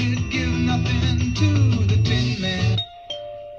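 A loud doorbell at the president's door plays a long, ringing multi-note chime melody for nearly three seconds, then cuts off, leaving a faint trailing tone and a soft knock-like sound, as Henry Kissinger arrives. No one speaks.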